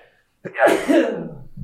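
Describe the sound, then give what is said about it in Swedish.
A single sudden sneeze caused by pollen bursts out after a brief silence, sharp and breathy, trailing off into a noisy exhale. “Prosit.”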